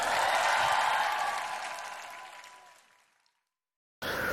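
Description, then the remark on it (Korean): An audience claps together for the God of victory in a dense, steady wash of applause that slowly fades out over about three seconds, followed by a brief silence before another burst of sound starts. “승리의 하나님께 큰박수 한번 올려드립시다.”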